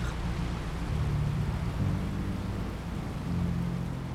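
Strong, steady wind rushes over the sails of a sailboat moving at speed at sea with its engine off, nearing Bermuda, with a deep, continuous roar and low rumbling undertone, loud throughout, with no voices.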